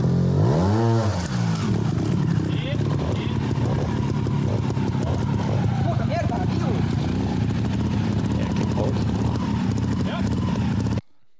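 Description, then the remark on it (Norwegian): A motorcycle engine revs loudly and continuously during a training session, its pitch sweeping up and down as the throttle opens and closes, with a steady mechanical roar throughout. “Ja, jeg må rett og slett spille av litt ifra når du trente, for det syns jeg var litt, litt kul lyd.”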